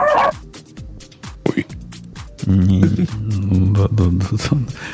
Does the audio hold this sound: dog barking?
yes